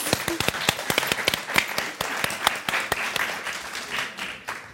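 A burst of applause from a small group, dense overlapping claps with a few sharper individual hand claps standing out, steady for several seconds before thinning slightly at the end.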